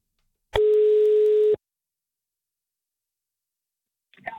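A single steady telephone ringing tone sounds once for about a second, clear and fairly loud, as a reporter phones a boy in the Copenhagen area, followed by silence until a voice briefly begins answering at the very end.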